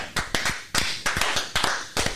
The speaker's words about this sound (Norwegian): Kan ikke vi bare altså, gi en applaus til kjernen i dag? Mm. Ja, for det!